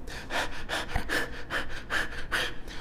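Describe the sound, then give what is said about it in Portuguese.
Audible breaths of a person doing a conscious deep-breathing exercise rush in and out in a quick, steady rhythm, each one a soft airy whoosh, with no talking over them. “Portanto, é um exercício consciente que você vai fazer para respirar mais profundo respirando mais profundamente, isso vai te trazer para o agora e vai ajudar a você controlar a sua ansiedade e se manter mais no seu centro.”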